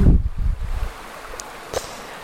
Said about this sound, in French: Et euh, un matin, donc en allant à la rivière, tu l'entends peut-être d'ailleurs la rivière là, parce que je suis à la rivière.